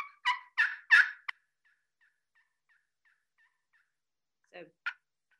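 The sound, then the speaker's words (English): A turkey pot call worked with a striker: three raspy, rising yelps and a sharp cluck, a run of faint, evenly spaced soft clicks, then two more short calls, with no voices. “Yeah, so we were talking about pot calls”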